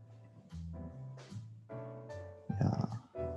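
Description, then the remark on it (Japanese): A speaker's own pet dog barks at home from some distance away, a run of drawn-out, tonal yelps followed by one rougher, louder bark near the end, with no other voices present. “あ、ワンワンって言ってる。”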